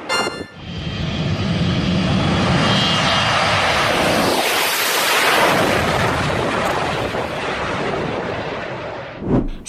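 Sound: airplane engine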